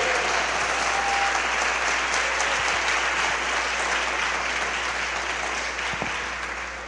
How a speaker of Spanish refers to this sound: Al verdadero Señor y pastor, denle un aplauso de todo corazón.